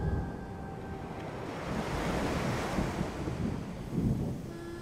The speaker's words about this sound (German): Das Wetter schlug um und es regnete in Strömen. Schiffshohe Wellen trafen auf unser Transportschiff.